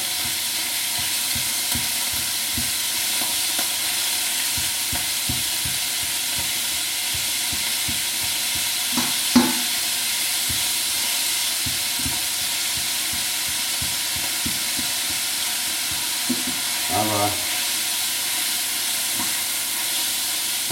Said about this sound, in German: Pfanne ist heiß. So, ich hoffe, das Zischen übertönt mich jetzt hier nicht allzu sehr.